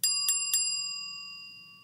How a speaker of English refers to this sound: Now, you'll see you have a bell.